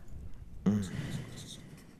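A pen scratches quickly across paper after a brief quiet moment as quiz contestants write down their answer, a soft rustling scrawl that continues for over a second, with faint murmuring in the background.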